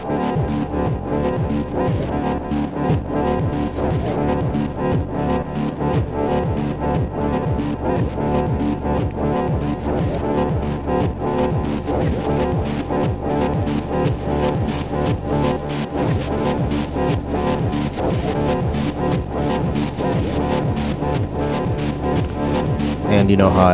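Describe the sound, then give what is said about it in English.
A dense, rhythmic electronic pattern of rapid repeating hits runs steadily at an even loudness through a Chronoblob 2 delay pedal. Its echoing delay repeats swell and recede as the pedal's wet/dry mix is modulated by the E channel out of a Dub Matrix. “I'm using this E channel out from the Dub Matrix to control the wet dry of the Chronoblob 2.”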